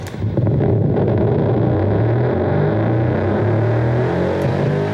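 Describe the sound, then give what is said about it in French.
A fan spinning a perforated disc, built by a member of a band, whose light flashes through the holes are converted into sound waves and played through a bass amp, gives off a loud, continuous distorted drone whose low buzzing pitch shifts in steps, with no talking. “Il a fixé un disque percé de trous sur son ventilateur et les flashs de lumière qui passent à travers les trous, quand ça tourne, sont convertis en ondes”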